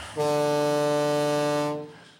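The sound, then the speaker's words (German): A loud, deep ship horn blasts once in a steady, sustained tone for about a second and a half, rich in harmonics, then cuts off and fades with a brief echo. “Das hupt ganz schön laut hier, ne?”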